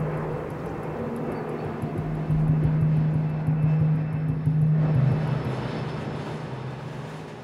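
A propeller airplane drones steadily overhead above a city, its low engine hum swelling in the middle and slowly fading, with faint ambient noise around it and no voices.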